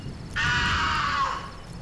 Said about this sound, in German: Als wir die Brücke überquerten, hörten wir einen Schrei, wie von einem schrecklichen Raubvogel.